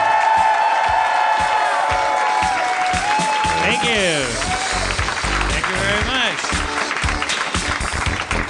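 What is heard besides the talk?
audience cheering and applauding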